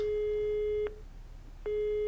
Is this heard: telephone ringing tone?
yes